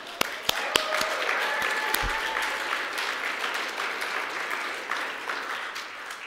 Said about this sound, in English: So thank you. It's just a good deal. Can we give them a little applause?